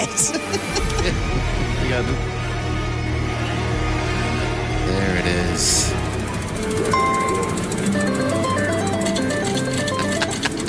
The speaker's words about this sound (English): Let's hear it again. All right, here we go. Oh, when this song comes on and that slot machine, the seat vibrates.